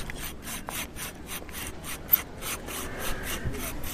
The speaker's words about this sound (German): Blau aus dem abgebrochenen Stück mache ich jetzt ein J für meinen Namen. Dafür nehme ich jetzt noch die Pfeile und feile die Seiten so ab, dass es aussieht wie ein J.